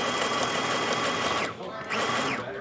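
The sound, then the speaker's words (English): A sewing machine, used by kids sewing their own clothes at Trackers Earth in the former Marshalls store at the Lloyd Center mall, runs with a steady, buzzing mechanical whir, winds down to a brief pause, then speeds back up and keeps stitching at the same loud, even hum. “There are kids Just, shooting arrows, sewing their own clothes”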